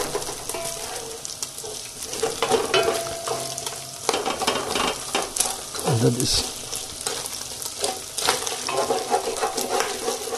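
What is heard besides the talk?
food frying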